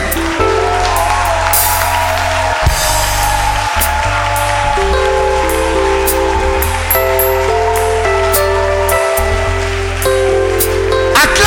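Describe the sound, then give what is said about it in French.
A church audience cheers and claps loudly in acclamation of God, a continuous, dense roar, while deep sustained keyboard chords shift underneath throughout. “Tu vas donner une forte acclamation cet esprit.”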